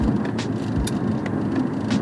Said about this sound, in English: Yeah, good old Hollywood. Just LA in general. Man, it is 8 after 8 o'clock and the traffic is still humming hard big time.